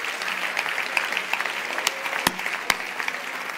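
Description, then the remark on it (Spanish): An audience applauds the Lord steadily, a dense wash of many hands clapping at once, with a few sharper, louder claps standing out near the end. No one speaks over it. “Si usted quiere, darle un aplauso al Señor y si no, usted es el que sabe.”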